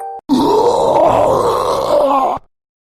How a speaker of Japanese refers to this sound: 誰かが吐くような声が聞こえてきました。